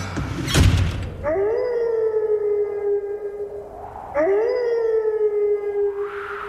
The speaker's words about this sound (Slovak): No, ten fičiak tam v pozadí za tým vlkom, to už je taká aktuálna vecička lebo sa nám ochladilo značne.